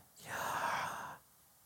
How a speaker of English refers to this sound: Come on, let's do that one more time like you're breathing in and out.